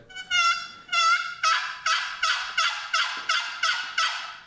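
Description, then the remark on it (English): A wooden box call with a hollow box, worked with its paddle, scrapes out a run of turkey yelps, about ten raspy, evenly spaced notes with a hollow resonance, loud with no talking over them. “And you know what I notice about that, and that and that is the the engineering of the box call. It's got that hollow box in it, and that is what's giving you the authentic turkey sound toward the end of it.”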